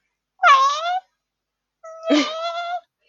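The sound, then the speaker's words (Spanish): A voice imitates a tomcat's caterwaul with two drawn-out, wavering yowls about a second apart, fairly loud. The second cry is longer, with a rising, strained start. “Escucho así como al lado un weón así”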